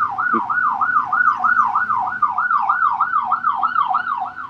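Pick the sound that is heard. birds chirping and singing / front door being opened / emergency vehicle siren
emergency vehicle siren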